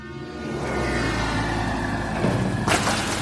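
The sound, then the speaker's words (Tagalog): A passing truck's horn blares loudly in repeated honks over a heavy engine rumble, holding a long steady tone before a sharp hissing burst cuts in near the end. “Sunod-sunod kasing bumusina ng malakas yung truck at saka nito tinamaan yung babae sa unahan ko.”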